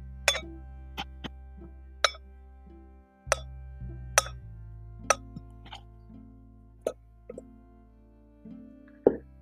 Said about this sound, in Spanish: Ahora estoy haciendo tapping con la olla. y el que no les que tal vez no, no guste es que tengo una cuchara y la estoy pegando así suavecito.